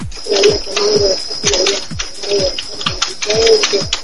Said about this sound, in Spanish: Te escucho perdón. tecleo, pero...